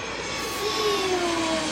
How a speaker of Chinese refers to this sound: 咻，飞机一下子就来到了澎湖。